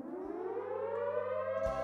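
A loud siren alarm sound effect wails steadily, its pitch slowly rising across the short burst, with a low droning hum underneath and no talking.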